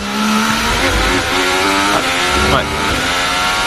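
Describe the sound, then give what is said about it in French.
A Formula 1 car engine on a qualifying lap, its high whine rising and dropping through several quick gear changes, heard poorly amid crowd and commentary-like background noise. “pendant que Sébastien Vettel finit son tour qualif, même si on l'entend très mal”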